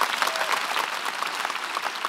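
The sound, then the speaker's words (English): Steady, dense applause from a festival audience for author Colson Whitehead, many hands clapping at once in a continuous crackling wash that holds an even, fairly loud level throughout. “Big round of applause for the extraordinary Colson Whitehead.”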